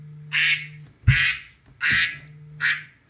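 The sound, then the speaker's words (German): An alarm ringtone of duck quacks going off at 9 p.m., four loud, evenly spaced quacks repeating in a steady rhythm over a faint electronic hum, clear with no talking. “Das ist mein Wecker.”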